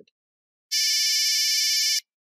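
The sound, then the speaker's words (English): A harsh, buzzy electronic beep like an old monophonic phone ringtone playing a popular song sounds loud for just over a second, then stops abruptly. No one speaks. “Monophonic is that annoying beeping sound in the tone of popular songs.”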